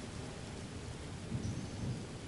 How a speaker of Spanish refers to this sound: El viento se hace más intenso y ya es casi molesto. La gente comienza a recoger todas sus cosas mientras vuelan hojas por todos los lados y se oye el segundo trueno. Este es más fuerte, ya no cabe duda. La tormenta se acerca.